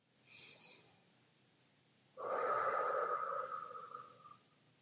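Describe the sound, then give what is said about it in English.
A person demonstrates a deep, calming breath: a soft, airy inhale through the nose is followed by a brief pause, then a longer, louder exhale with a faint whistling, breathy tone. No one speaks. “if someone says take a deep breath or you hear inside of yourself, oh, I need to take a breath here, it's not through the mouth and it's not a quick, shallow breath.”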